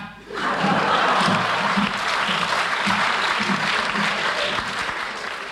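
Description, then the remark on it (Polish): A cabaret audience, in an archive recording of Kabaret Tey, bursts into sustained applause, a dense, steady wash of clapping that starts abruptly and holds at full strength, with a few faint voices and whoops mixed in. “Klaskać!”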